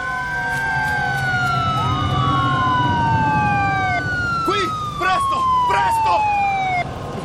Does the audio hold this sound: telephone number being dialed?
no